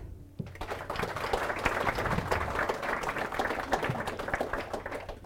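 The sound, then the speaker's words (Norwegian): An audience applauds panel guests steadily, many hands clapping in a dense, continuous patter that stays fairly even in loudness for several seconds, with no voices over it. “Så gir vi de alle en applaus.”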